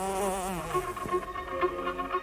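A fly buzzes steadily, its droning whine wavering in pitch as it moves around, continuous for the whole moment with no voices.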